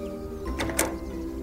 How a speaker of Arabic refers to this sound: حين وصلنا دق أدهم بابها فتحت الباب